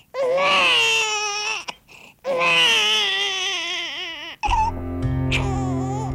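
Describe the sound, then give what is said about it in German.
A baby wails loudly in two long, strained crying bursts separated by a short gasp, after which a steadier, lower tonal sound takes over. “Auch dann nicht, wenn sich der Säugling in größter Not festgeschrien hat?”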